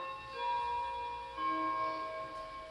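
A clock chimes the quarter hour with the Westminster Quarters: two bell-like notes struck about a second apart, each ringing with bright, sustained overtones that slowly fade. Nobody speaks.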